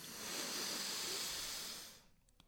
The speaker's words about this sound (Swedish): Så vi slappnar av, tar in luft i lungorna. Kniper med könet. Och så andas vi ut. Slappnar av med könet. Andas in, fyller på.